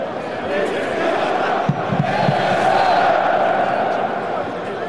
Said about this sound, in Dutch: Het publiek op de tribune, fans van Denemarken en Finland, steunen de voetballer en roepen zijn naam.